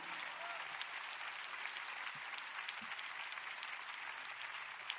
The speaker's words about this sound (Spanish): Todos los que vinieron a la iglesia físicamente aplaudan. Los aplaudo por estar aquí.